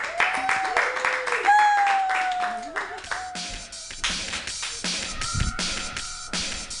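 A comedy show crowd claps steadily and densely for several seconds to welcome the next comedian, with shrill whistles and whooping cheers rising above the applause throughout.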